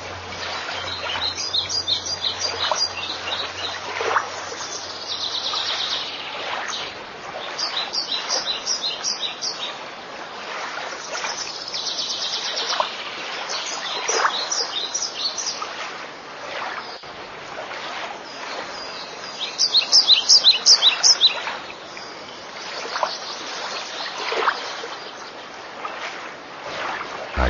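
Birds chirp in repeated bursts of high, quick notes over a steady wash of ambient outdoor noise, with several calls overlapping at moderate loudness. No one speaks.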